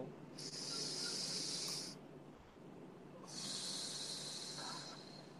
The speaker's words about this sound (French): Une respiration.